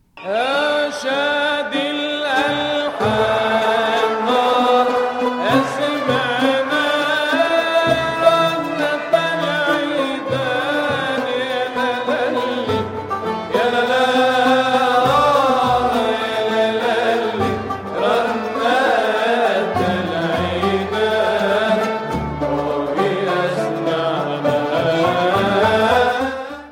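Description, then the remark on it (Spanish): Middle Eastern instrumental music in maqam rast plays steadily throughout, with rich sustained tones and ornamented, gliding melodic lines at a fairly even, moderate loudness and no voices. “Entonces, el macam número uno, este es el macam rast. Suena así.”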